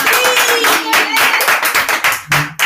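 An audience breaks into loud applause, a dense, rapid patter of many hands clapping at once, with a few voices faintly mixed in before it thins out toward the end.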